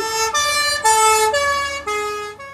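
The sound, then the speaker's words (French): A loud two-tone emergency siren alternates between high and low notes about every half second, continuous, with no voices, its pitch shifting with the Doppler effect as it passes. “il y, a du Doppler quand il passe.”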